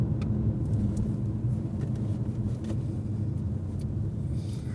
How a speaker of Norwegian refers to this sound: Ja, som for eksempel nå kjører vi da en rundkjøring, og du, mm. og du eh, avpasser farten når du kommer inn, og så ser du utviklingen, og så bruker du en luke.